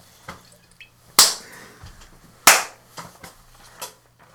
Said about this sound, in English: Come on, high five. Yeah, yeah.